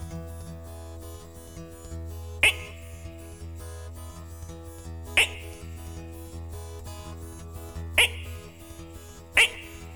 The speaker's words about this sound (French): Il y en a d'autres qui font plus Et même de temps à autre, on entend certaines grenouilles qui font